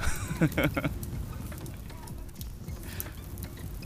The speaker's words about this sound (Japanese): これ焚き火のもう火がこう全部消滅するまでの音音音なんちゃうの